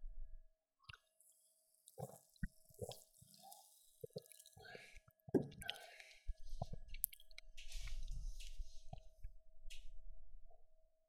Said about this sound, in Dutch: Tijd om erin te duiken. Niet letterlijk. Ik ga gewoon een slokje nemen.